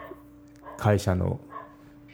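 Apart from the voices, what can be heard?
dog barking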